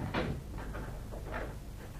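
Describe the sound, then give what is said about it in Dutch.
A door is pulled open in the middle of the night, with a few scraping, rattling bursts spread over two seconds, moderately loud, over a steady low background hum. “Zeg, Meuk, eh, doe die deur weer schoon open.”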